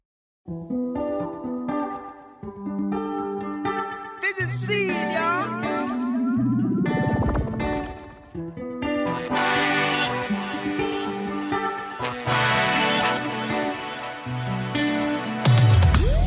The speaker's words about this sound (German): Wir hören mal in die erste Single ….